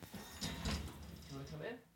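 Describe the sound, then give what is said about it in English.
A door slides open with a short scraping rush, opened to let the pet Olive in after she cried at the door, followed by some faint shuffling and low murmuring in the background. “Hold on, let me just let her. in.”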